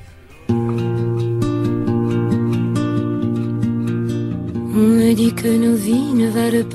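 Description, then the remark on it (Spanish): A pop singer's song kicks in after a brief pause, with steady sustained instrumental chords, and near the end the singer's voice enters over a fuller, brighter accompaniment. “que sepan que hoy ya tienen eh, mucha música en directo y que, por ejemplo, en Sevilla hay un planazo internacional que suena así.”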